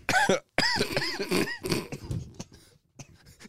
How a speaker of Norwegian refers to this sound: du sliter med hostinga. Du, den er tilbake. Ja, jeg var nok litt eh, tidlig ute med å friskmelde meg sjøl etter Hemsedal. Ja. Det har vært eh, mye hosting. Til og med hosting til oppkast denne uka.